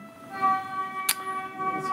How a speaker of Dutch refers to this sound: Wat is dit van dit geluid? Oh. We worden afgeleid, maar het is gewoon een trein die oh, langs komt, niks aan de hand verder.